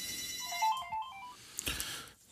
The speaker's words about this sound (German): Jetzt geht gerade mein Telefon. Hier ist ja was los.